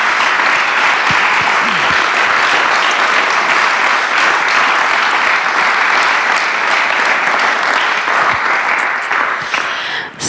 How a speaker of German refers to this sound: Dann kommen wir jetzt, oder wir geben den beiden erst nochmal einen großen Applaus, bevor es weitergeht. Oder?